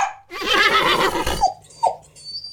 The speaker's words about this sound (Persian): حیات قلعه صدای چند اسب و زوزه چند تا سگ شنیده میشد